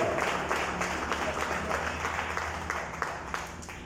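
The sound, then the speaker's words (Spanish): A church audience applauds for Christ steadily, many hands clapping in a dense, continuous wash with a few sharper claps standing out, holding at a fairly even level throughout. “Denle el aplauso a Cristo, por favor.”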